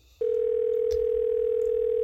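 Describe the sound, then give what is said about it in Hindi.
A phone's ringing tone for an incoming call switches on abruptly after a brief pause and holds one steady, unbroken pitch, loud, with no voices around it. “इतने में फिर बेल बजी उसने देखा कुसुम की कॉल थी”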